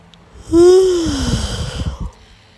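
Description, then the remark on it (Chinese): A voice acts out a sloth's single long, drawn-out yawn while telling a story: a loud voiced tone that holds steady, then slides downward into a breathy, fading exhale over about a second and a half. No talking. “然后树懒打个哈欠，”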